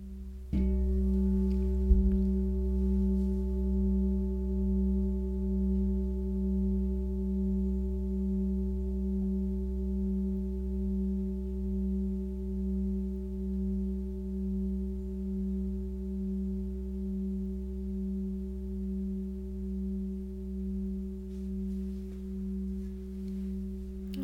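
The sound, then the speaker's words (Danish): A singing bowl rings in one long, steady drone with a slow wavering pulse, humming on without fading for the whole stretch. It is fairly loud, and no one speaks. “Når der opstår en tanke, så bare slip den og vend tilbage til lyden af skålen.”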